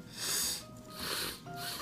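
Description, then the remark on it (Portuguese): A congested nose, blocked after forgetting nasal spray at home, snorting and wheezing: two or three forceful, hissy breaths through the nostrils, each carrying a thin whistling squeal, with no talking. “E o pior é que o nariz faz barulho, tá ligado? Ó. Ah parece uma corneta pisoteada.”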